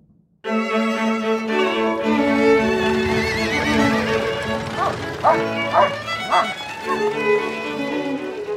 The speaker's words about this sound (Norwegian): Det var sommer da Petronelle kjørte med hest og vogn inn i Kristiania for første gang